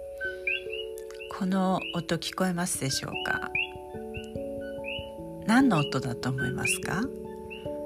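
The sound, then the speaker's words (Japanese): Coqui frogs call at night on the Island of Hawaii, many short chirping two-note whistles repeating in the background, while a woman talks steadily over them. “これはハワイ島の音夜の音なんですよハワイ島の夜は割とこうやって賑やかな音がするんですねで私たちの耳にはもう慣れてしまっているんですけど皆さん何の音だと思いますかこれね実はカエルなんですよコーキーフログと呼ばれるカエルなんですけれども”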